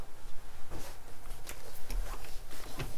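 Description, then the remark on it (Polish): A window is opened and shut: a low rumbling slide with scattered clicks and clunks, then a couple of sharper knocks as it closes. No one speaks. “Otwieramy. Zamykamy.”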